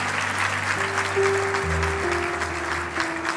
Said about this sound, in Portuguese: Uau, sejam todos bem-vindos. Uma salva de palmas aos nossos irmãos e irmãs.